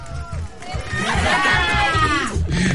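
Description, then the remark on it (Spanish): A group of schoolchildren lets out a drawn-out shout together when asked for one, rising and falling over about a second and a half amid a low background rumble. “A ver, un grito.”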